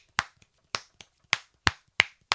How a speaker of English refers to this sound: that was your mom telling you that she was on the phone and you're going to die if she keeps snapping.